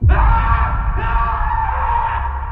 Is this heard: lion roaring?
no